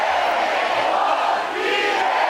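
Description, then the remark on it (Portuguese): A large church audience shouts "o meu" together in unison, a loud, sustained mass of voices that swells and holds for a couple of seconds, dipping briefly before rising again. “Fala mais alto que você puder: o meu.”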